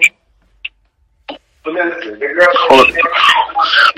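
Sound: incoming phone call ringing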